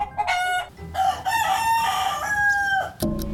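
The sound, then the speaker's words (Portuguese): A neighbour's rooster crows loudly, its strained, drawn-out cock-a-doodle-doo filling nearly the whole moment before another crow begins right at the end. No one speaks. “Esse galo aqui que agora está silencioso, mas espera só até dar quatro horas da manhã.”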